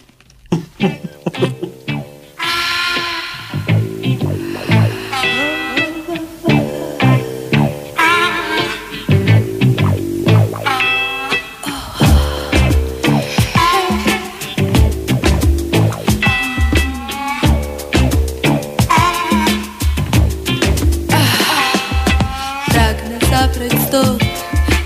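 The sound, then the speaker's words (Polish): A full band song plays loud and continuous, with a steady drum beat, sustained chords and a melodic vocal line sung in Polish that starts after a short intro. “Ale posłuchamy sobie muzyki, panie Maczku, co?”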